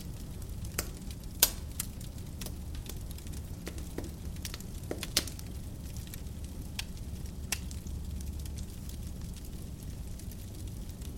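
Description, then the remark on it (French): A fire crackles steadily in a fireplace, with sharp irregular pops and snaps over a soft low rumble. Moderately quiet, with no voices. “Prenez quelques minutes pour vous concentrer exclusivement sur le son apaisant des flammes dans le foyer.”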